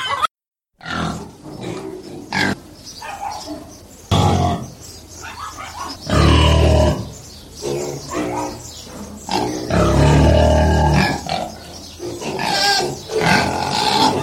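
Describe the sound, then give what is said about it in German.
Five pigs on a farm grunt and snort in a busy, overlapping chorus, with deep, loud bursts rising and falling over about fourteen seconds and no one talking. “Ja, wir haben sogar fünf Schweine.”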